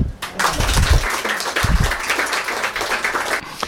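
A live audience breaks into steady applause, a dense wash of many hands clapping together at close range and sustained for several seconds before beginning to taper off.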